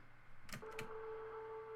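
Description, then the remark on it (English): A low, ominous hum from the Golden Gate Bridge, a suspension bridge, heard while walking across it, settles into a steady droning tone after two brief bursts of noise, holding evenly and fairly quiet to the end with no voices. “That ominous humming is the sound that you hear when you walk across the Golden Gate Bridge.”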